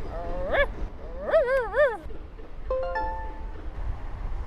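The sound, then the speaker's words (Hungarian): A person imitates a dog with whiny vocal yelps: one short yelp, then a wavering, sing-song whimper, followed by a steadier drawn-out whine, all moderately loud with no words. “Most én kutya leszek.”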